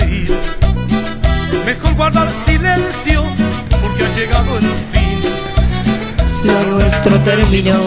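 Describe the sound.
A full-band song plays loud and steady, with a driving beat, strong bass and a male voice singing over dense instrumentation throughout.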